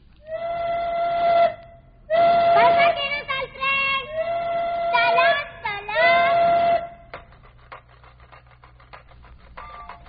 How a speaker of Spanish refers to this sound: ¿Sabes cuál? El metro de la Ciudad de México. El tren anaranjado que atraviesa toditita la ciudad, desde un lado hasta el otro, como una lombriz. Pero no porque vaya despacio, sino porque va por debajo de la tierra.